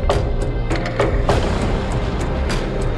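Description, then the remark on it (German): A quick series of about six sharp knocks on wood aboard the ship Demeter, given as an all-clear signal, irregularly spaced within the first second and a half, over a steady, loud rumbling background with no voices. “Um Entwarnung zu geben, klopfen wir so auf Holz.”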